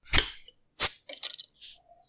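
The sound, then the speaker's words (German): A beer bottle is opened: two sharp pops of the cap, then short crackling bursts and a brief airy fizz, all fairly loud with no talking. “Uh, das hat ganz schön gut gezischt, Mann.”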